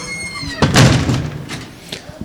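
The large grey door of a palm house greenhouse built in 1912 under the direction of Hugo de Vries is pulled open with a brief squeak, then swings shut with a loud, rattling clunk, followed by a lighter knock as it settles.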